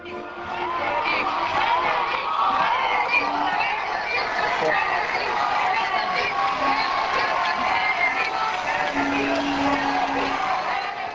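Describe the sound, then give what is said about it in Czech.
A large crowd of young Viennese cheers and chants with excitement in front of the papal nunciature in Vienna, Austria, on a Friday early evening, welcoming Pope Benedict XVI as he comes out onto the balcony: a dense, steady roar of many voices with shouts and whoops rising above it throughout. “Takto bouřlivě přivítali v pátek v podvečer mladí vídeňáci před papežskou nunciaturou Benedikta XVI., když vyšel na balkon.”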